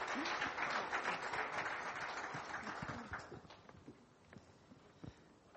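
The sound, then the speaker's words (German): A crowd claps steadily to welcome people, with dense, overlapping warm applause that is loudest at first, then thins out into scattered individual claps as it fades toward the end. “lasst sie doch nochmal einen ganz warmen Applaus hören und heißt sie herzlich willkommen nochmal.”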